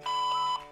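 A single answering machine beep: one steady electronic tone of about half a second, held at a constant mid-high pitch, sounding alone with no voices.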